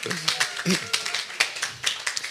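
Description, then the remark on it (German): A crowd claps in a quick burst of scattered, overlapping hand claps with some voices mixed in, moderately loud, applauding audience members from Solingen. “Applaus für alle Solinger,”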